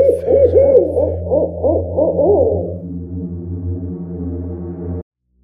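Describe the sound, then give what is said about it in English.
Wavering owl hoots repeat quickly for a few seconds over a steady low hum. The hum carries on alone afterward, then cuts off abruptly. “finding yourself in the talons of an owl and the shadows of the forest moonlight.”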